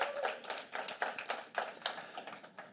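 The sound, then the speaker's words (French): An audience claps, a steady patter of many hands with sharp, bright, overlapping claps that keep a loose, uneven rhythm throughout at a moderate level, with no voices standing out. “Oui, un petit main d'applaudissement.”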